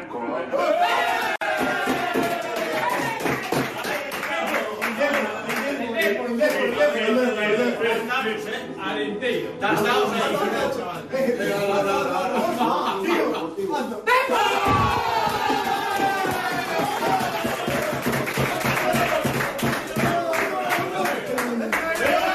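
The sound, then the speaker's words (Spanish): A group from the Covadonga club at a cup draw cheers and shouts excitedly as they are drawn against Depor, with scattered clapping and overlapping voices at a steady, loud level throughout. “Al que le ha caído el gordo y además también han subido el típico vídeo y lo estaban pidiendo y les cayó, sabiendo los rivales a los que se podían enfrentar, ha sido Alcobadonga que quería el Depor, quería el Depor, quería el Depor.”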